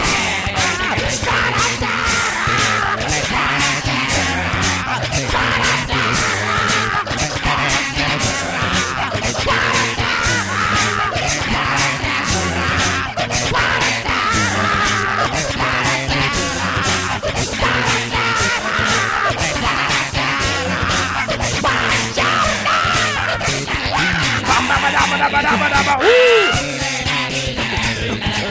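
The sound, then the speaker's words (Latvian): A loud, dense a cappella rock cover made entirely with the voice: layered yells and growls mimic guitars and vocals over steady beatboxed drum hits, with no pause for about half a minute. “šo big beatboxeru, kurš ir šo gabalu uztaisījis”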